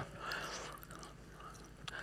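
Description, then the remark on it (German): Continuous chewing of a tough, papery page torn from a Bible, with soft wet mouth noises and a faint crinkle, no talking, at a quiet level throughout. “Ich hoffe, ich muss nicht die ganze Seite essen. Schmeckt nicht so gut.”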